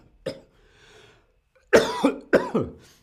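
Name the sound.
coughing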